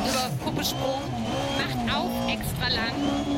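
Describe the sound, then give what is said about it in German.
A video game rally car's engine revs and drones continuously, with tires squealing and skidding in short bursts as the car goes out of control, and a voice talking over the noise. “Okay, scheiße, ich hab, ich hab den Wagen nicht mehr unter Kontrolle.”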